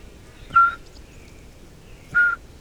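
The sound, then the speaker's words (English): Someone whistles an imitation of a pygmy owl's call: two short, clear, steady-pitched hoots spaced well apart, fairly loud, with no talking. “Actually, I think the pygmy owl was first, but maybe you didn't it, hear it.”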